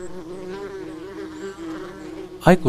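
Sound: wasp buzzing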